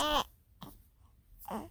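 A newborn baby girl cries in short bursts, a strong wail at the start, a brief whimper, then another rising cry at the end, fairly quiet with pauses between.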